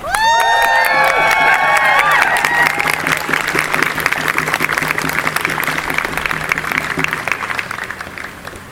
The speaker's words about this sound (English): Please give a round of applause for our first speaker